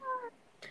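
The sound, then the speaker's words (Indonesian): A single short cat meow, fairly soft, followed after a brief pause by a quick burst of rustling noise. “aduh maaf ya anak kosan lagi lapar”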